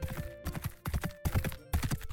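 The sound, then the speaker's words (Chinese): Horse hooves of about six horses clip-clop in the distance in a misty forest, a steady run of sharp knocking beats falling in repeated quick clusters like a trotting gait, fairly soft with a faint background hum and no voices. “当公主往大雾与门框走时，远处似乎传来了马蹄声。”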